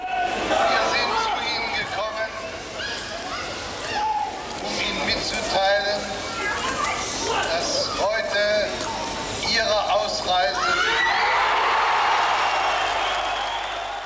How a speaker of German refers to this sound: Das geht ja, oder die letzten Worte von Hans-Dietrich Genscher, die gehen ja im Jubel unter. Hat man die vor Ort gehört? Hat man gehört, was er wirklich gesagt hat am Schluss? Nein, das hat man nicht gehört.